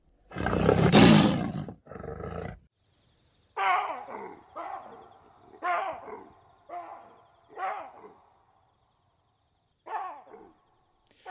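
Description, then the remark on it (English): A lion lets out a powerful roar followed by a string of shorter, deep grunting roars spaced about a second apart, trailing off with quiet pauses between them. “Shooting a lion from the back of a Land Rover, this was not. This was man versus beast.”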